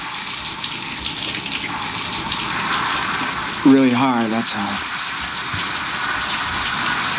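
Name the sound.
shower water running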